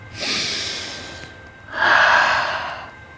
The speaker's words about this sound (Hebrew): והוא נשם נשימה עמוקה.